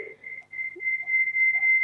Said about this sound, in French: Euh, veuillez diminuer le volume de la radio, s'il vous plaît. Ça siffle un peu. Non, c'est votre radio que j'ai allumée. Oui, c'est vrai. C'est notre radio qui fait ça, mais il faut diminuer le, volume